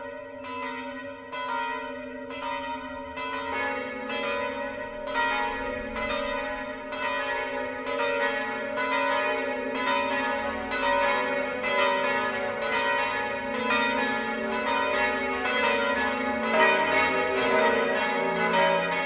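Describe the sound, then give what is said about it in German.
The six bells of the Catholic Herz-Jesu-Kirche in Bad Kissingen, Lower Franconia, Bavaria, cast in 1858 and 1884 in Bamberg and Würzburg, peal continuously for the Sunday noon ringing broadcast by Bayern 1, overlapping in a steady, rhythmic clangour of rich, ringing tones with long shimmering overtones, loud and unbroken with no voices. “Das Mittagsläuten kommt heute von der Herz-Jesu-Kirche in Bad Kissingen in Unterfranken.”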